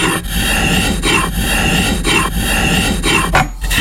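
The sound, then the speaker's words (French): A cabinet scraper, a tool that predates sandpaper for smoothing wood, drawn repeatedly across wood, making steady, loud, raspy strokes in an even rhythm, about one per second, with no voices. “Euh, il y a également des racloirs. Ils sont beaux les outils.”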